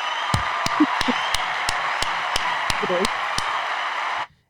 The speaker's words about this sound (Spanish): O sea, te, te felicito. De verdad, mira, otro aplauso.